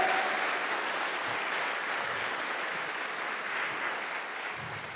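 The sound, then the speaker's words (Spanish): A crowd applauds the King of Kings steadily, a dense wash of many hands clapping at once, sustained and fairly loud for the whole stretch without letting up. “Dale fuerte ese aplauso al Rey de Reyes.”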